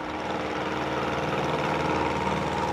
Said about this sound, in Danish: Jeg kan huske, at vi sejler ud i den her fine motorbåd. Ud på den her kæmpe, kæmpe sø, som jeg havde en idé om var meget lille, men den er jo gigantisk.